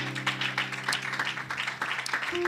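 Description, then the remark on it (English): A crowd claps their hands unto the Lord in a dense, continuous burst of applause, steady throughout, with a sustained low musical tone humming underneath. “One more time, can we clap our hands unto the Lord?”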